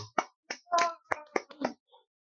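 A short burst of applause: roughly seven or eight sharp hand claps in an uneven rhythm, fairly loud, sounding like a single person or very small group clapping, with no talking over it.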